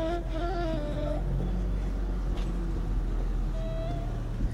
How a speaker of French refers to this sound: et énormément de voitures.